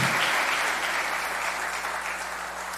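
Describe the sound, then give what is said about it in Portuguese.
A church audience breaks into applause for the news that some 60 people will be baptized in November, a dense, steady wash of many hands clapping at once, sustained at an even loudness for a few seconds with no voices standing out. “Isso merece uma salva de palmas, gente.”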